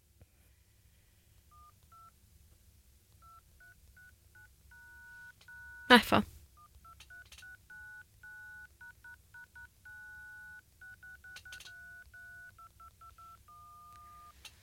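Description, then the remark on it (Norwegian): A long run of short phone keypad tones beeps out in quick, uneven bursts, each key pressed giving its own pitch, with a loud clatter partway through and a brief spoken exclamation. “Kan ikke hver tast ved sin egen uh, unike lyd, holdt på å si?”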